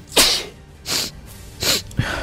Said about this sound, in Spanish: estornudar sin protegerse en un sitio público